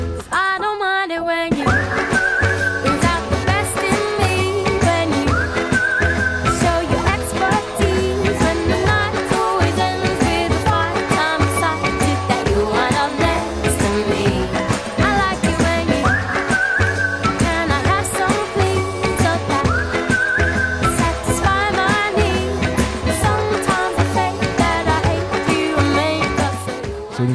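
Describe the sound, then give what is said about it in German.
A pop song plays loudly and continuously, with a steady driving beat, layered instruments and a bright melodic line, and no talking over it. “Na dann, hören wir rein.”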